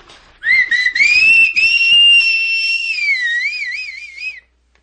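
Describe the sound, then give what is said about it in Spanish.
A person whistles a single sustained tone into someone's ears on a doctor's instructions, rising gently then wavering in a slow vibrato, with breathy puffs and soft clicks at the start; no melody, about four seconds long. “Es que se me hace chocante soplar en las orejas sin ningún ritmo musical.”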